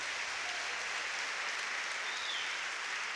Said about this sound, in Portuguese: Você pode dar mais uma linda salva de palmas a Jesus?